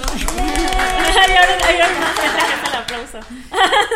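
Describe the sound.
A brief burst of applause from a few people welcoming guests on a show, with scattered clapping mixed with laughter and excited voices, fairly loud throughout and swelling again at the end.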